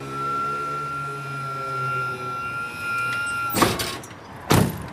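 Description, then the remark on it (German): A wheelchair lift platform lowers a passenger in a wheelchair from a vehicle down to the street, with a steady electric motor whine, followed by two loud mechanical clunks near the end. No voices are heard. “kommt unser Fahrgast mit dem Rollstuhl wieder auf die Hebebühne. So, und jetzt geht's abwärts auf die Straße.”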